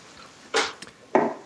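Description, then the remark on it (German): Liquid glugs from a half-full bottle into a glass in two short, splashy bursts with a brief clink between them, fairly loud against a quiet background. No one speaks. “Du meinst ein mhm. mhm. hoffentlich nur leicht gefülltes Glas.”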